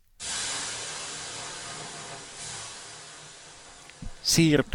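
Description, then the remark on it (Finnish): A person makes a long, steady hissing shush, like steam hitting sauna stones, lasting about four seconds before a short burst of voice cuts in at the end. “Toi kuulosti muuten ihan löylyltä, joka kuullaan nyt.”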